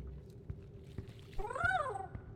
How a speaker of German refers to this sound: Oh, Digga, ist da die Katze. Katze, Katze.